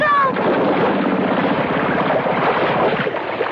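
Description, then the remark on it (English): An idling motorboat motor chugs loudly and steadily, its low rhythmic throb running without pause beneath a wash of wind and water noise. “The motor's died, and the boat's drifting.”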